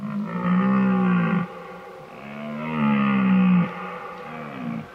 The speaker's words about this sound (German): mit diesen unverwechselbaren Brunftschreien unablässig Weibchen anzulocken